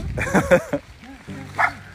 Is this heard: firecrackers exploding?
no